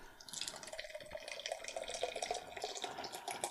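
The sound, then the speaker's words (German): Guinness beer glugs and trickles out of a freshly opened can, a continuous wet gurgling with small dripping and splashing bursts over a few seconds, no voices. “Gluckert das so ein bisschen raus.”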